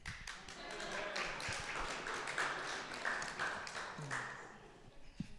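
An audience claps their hands in a steady, dense patter of many overlapping claps, fairly loud throughout, with a few faint voices mixed in beneath the clapping.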